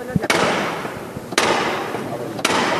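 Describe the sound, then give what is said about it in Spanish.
Three loud, sharp hammer knocks on a processional float strike about a second apart, each ringing out with a long reverberant tail over a steady background murmur of a crowd. “Bueno, pues ahora se va a producir esta, y le pega tres martillazos fuertes, Tres, tres para arriba, fuerte, fuerte.”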